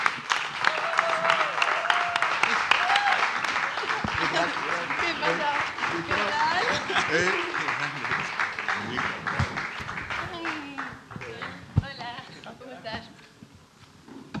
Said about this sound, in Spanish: Fuerte aplauso a Clara Alvarado, por favor.